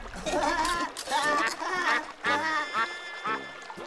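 bird, ducks quacking

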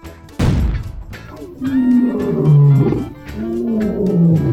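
sound effect, lion roar sound effect

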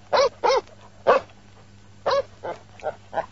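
animal, dog barking

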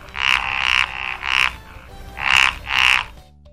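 animal, frog croaking

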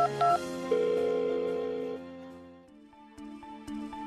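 signal or alarm, telephone dialing

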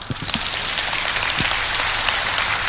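crowd, audience applause

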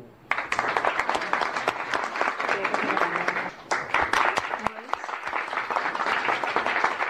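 crowd, audience applause

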